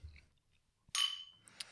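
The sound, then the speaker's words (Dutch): Glasses clink together in a toast, one bright ringing chime that lingers and fades, followed by a couple of lighter glassy taps, with no talking. “Kijk, merci. Proost.”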